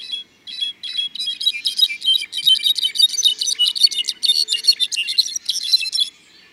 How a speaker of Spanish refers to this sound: Las voces aflautadas del saltapared cejas canela repercuten en el bosque, en sintonía con las tonadas centellantes de clarines jilgueros.